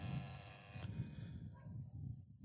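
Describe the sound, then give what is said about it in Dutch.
A doorbell at house number 174 rings with a sustained electronic tone, steady for about two seconds before cutting off, over a low background rumble. “Ik ga ze aanbellen.”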